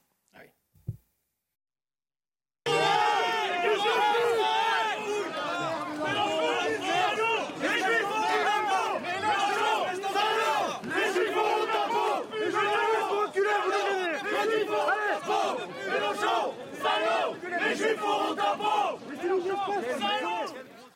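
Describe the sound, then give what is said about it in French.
A large crowd chants a name in unison, loud, a rhythmic repeated shout that pulses steadily for about eighteen seconds after a brief quiet start. “Et il y a une petite séquence que vous allez entendre où effectivement il scandait son nom.”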